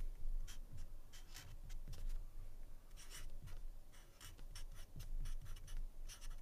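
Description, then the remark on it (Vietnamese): A pen scratches and scrapes across paper in quick, repeated strokes, writing words and drawing a circle around them, fairly quiet, with a low background hum and no voices. “các anh chị ghi cái từ ý chính giữa sau đó các anh chị ghi chữ nghe thấy nói biết giúp toàn các anh chị ghi vẽ một cái vòng tròn xung quanh”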